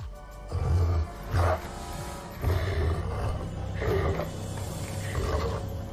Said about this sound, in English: Heard you growl.